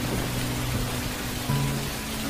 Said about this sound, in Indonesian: Namun, tiba-tiba hujan turun dengan lebat.